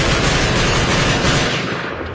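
Dense, loud gunfire in Afghanistan as commandos advance on the attack into gunfire: a continuous barrage of overlapping shots and heavy booms with a deep rumble, tapering slightly toward the end. No one speaks.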